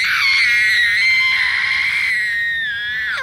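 A child screams loudly and continuously for about three seconds, a high, strained, sustained wail, tapering slightly at the end, while being grabbed by the arm and taken home.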